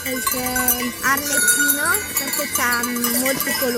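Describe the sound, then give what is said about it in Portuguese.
A herd of more than 350 goats bleats repeatedly, wavering cries overlapping, while bells clank and jingle among them in a steady outdoor din, on the slopes of Monte Vaza in Italy at an altitude of almost 1,000 metres. “É entre um rebanho de mais de 350 cabras que a menina liga ao portátil, abre os livros e assista às aulas.”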